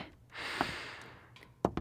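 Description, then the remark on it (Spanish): A long, deep inhale by a woman, a broad airy rush swelling over about a second, followed by a couple of soft breathy clicks at the end. “Inhalo profundamente.”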